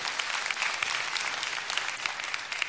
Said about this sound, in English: Now, that is a good time to clap.